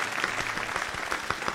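An audience applauds to welcome a guest lawyer, with steady, dense clapping, many overlapping hand claps forming a bright, crackling wash at an even level throughout, with no voices heard.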